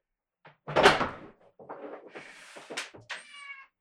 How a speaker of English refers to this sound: Ah, just, yeah, just open the door